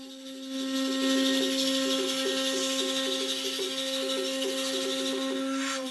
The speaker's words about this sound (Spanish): Ese es el sonido del caracol, como si fuera una trompeta soplan para anunciar el inicio de su ceremonia.